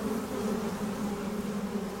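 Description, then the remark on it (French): A steady, low hum of a honeybee colony packed inside its hive in winter, clustered around the wax combs, recorded by a microphone placed under the hive floor; a dense continuous drone with a faint buzzing texture and no pauses, even throughout. “Faisons passer sous le plancher de la ruche un micro ou un appareil enregistreur, et nous entendons un grésillement un vrombissement sourd, un bourdonnement.”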